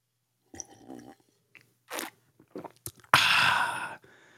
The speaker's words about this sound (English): That's a sip of the day. That's a sip of the day.